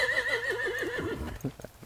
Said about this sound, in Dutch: dat is niet Maxi, maar dat is een paard.